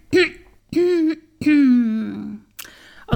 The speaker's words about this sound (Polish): chrząkuję, bo mój głos jeszcze jest mało elastyczny i sprawny.